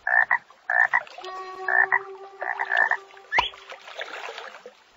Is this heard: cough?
no